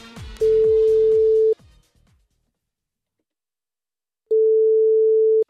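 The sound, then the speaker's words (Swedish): Two long, steady ringback tones from an outgoing phone call to a pastry shop in Sundsvall, each about a second long with a pause between, faint over a fading musical tail at the start. “jag ska ringa till ett konditori i Sundsvall och så ska jag be dem att skriva på en tårta något av det mest personliga som man kan berätta för någon.”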